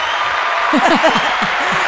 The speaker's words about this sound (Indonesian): Tepuk tangan dulu lah.